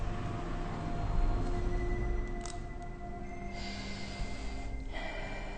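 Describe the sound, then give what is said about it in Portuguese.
A long, deep inhalation during a guided breathing exercise, an airy rush of breath drawn steadily in over several seconds, with a faint steady tone humming underneath and no one speaking. “Respirando fundo.”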